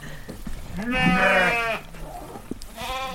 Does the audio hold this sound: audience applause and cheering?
no